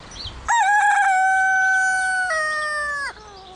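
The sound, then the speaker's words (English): A single loud rooster crow rings out for about two and a half seconds, a bright sustained call that shifts pitch partway through before cutting off, with no voices. “Roosters die.”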